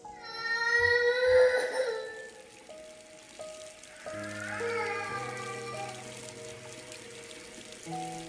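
A water tap at the pavilion toilets, just turned on, whines with a wavering wail like a crying baby that soon settles into steady droning tones over rushing water, loud, with no voices.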